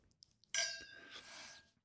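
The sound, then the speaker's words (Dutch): Wine glasses touch in a toast with one bright clink, its high glassy ring lingering and fading over about a second amid quiet. “Hij is heel lekker. Proost.”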